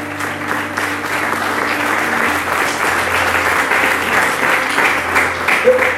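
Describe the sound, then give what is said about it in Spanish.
A church audience claps steadily in applause for God, a dense wash of applause filling the whole stretch, with a sustained low organ-like tone underneath that shifts pitch partway through. “Alguien aplaude a nuestro Dios.”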